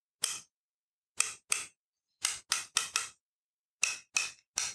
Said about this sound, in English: I can see that there's some sockets holding them in place that's no problem. I've got a couple of ratchets that we can use to loosen the sockets to take a look inside. So let's just try a couple out.